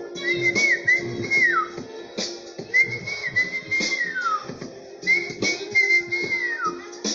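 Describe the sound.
A little bird whistles a short melodic phrase three times at steady intervals, each call rising then sliding down, clear over a constant low background hum.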